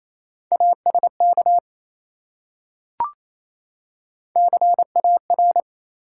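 Fast Morse code beeps at 28 words per minute spelling three-letter words: a steady mid-pitched tone keyed into short and long pulses, sent in two quick bursts separated by a pause with a single soft click. No one speaks.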